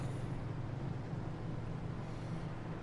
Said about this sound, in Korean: 버스 온다.